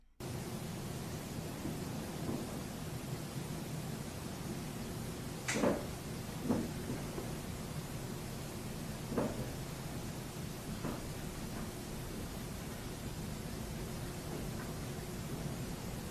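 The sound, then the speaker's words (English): Muffled footsteps on the second floor of the Merchant House Museum, a handful of dull, irregularly spaced thuds and creaks heard faintly through a ceiling over a constant background hiss, with no voices. “So, those two audio clips are from the Merchant House Museum, recorded on the second floor, two different recorders, and what you're hearing are footsteps.”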